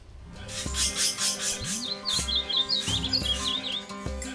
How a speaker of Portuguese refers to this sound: Para ouvir os sons dos pássaros, é preciso tempo e concentração.